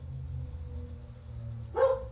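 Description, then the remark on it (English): A single short dog bark pops up near the end over a steady low background hum, moderately loud, with no one speaking. “Dog barking”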